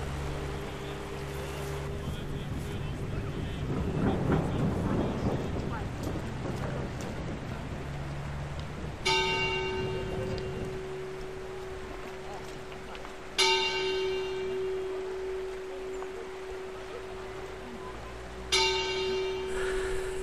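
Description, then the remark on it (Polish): A church bell in a village bell tower, pulled by a villager as a threatening storm approaches, tolls slowly: three resonant strikes several seconds apart with a long ringing hum, following a stretch of low, rumbling noise like thunder and steady rain. “I zawsze, kiedy nadciąga groźna burza, nie taka zwykła, ale groźna, widać, że te chmury się kłębią do tej dzwonnicy.”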